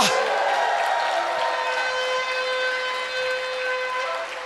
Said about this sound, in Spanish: Dele fuerte ese aplauso al que vive y da un grito de victoria. Da un grito de victoria.